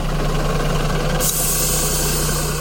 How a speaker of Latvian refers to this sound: Pēc brīža iegriež arī kāds autobuss.